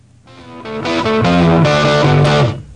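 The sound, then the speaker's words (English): A loud, gritty distorted electric guitar riff chugs through a few bright chords, sustaining thickly with a rough, overdriven edge and no voices, like the opening of a rock song. “All right, let's start it off with uh, …?”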